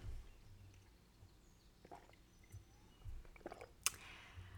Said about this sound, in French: Je vais prendre une petite gorgée d'eau.